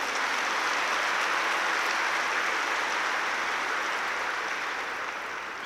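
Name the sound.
loud applause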